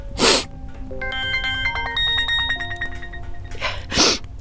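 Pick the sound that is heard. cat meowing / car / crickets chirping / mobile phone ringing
mobile phone ringing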